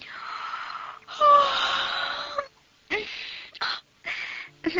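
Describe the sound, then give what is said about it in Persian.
A voice acts out a long, breathy yawn that stretches and swells, then trails into a few short, airy sighs and gasps, fairly loud with no other sounds. “و با اینکه اون همه دقت و ظرافت رو آرایش و پیرایش خودش به کار برده بود خمیازه کشون گفت”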